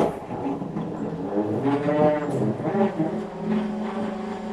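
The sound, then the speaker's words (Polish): A delivery truck bringing aid parcels from all over Poland, arriving daily, rumbles with a steady, deep droning hum that swells slightly as it pulls in, filling the space for a few seconds. “Taki samochód przyjeżdża do nas codziennie.”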